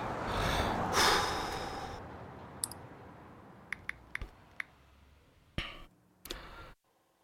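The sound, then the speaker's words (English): A long, loud deep breath swells over about two seconds, followed by quiet with a few scattered sharp clicks and two brief hissing bursts near the end. “Deep breath.”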